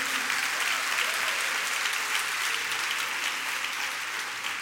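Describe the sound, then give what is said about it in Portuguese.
An audience applauds steadily, dense overlapping hand claps forming a continuous bright wash of sound that holds at an even level for several seconds, tapering only slightly at the end. “Não, pode dar salva de palmas.”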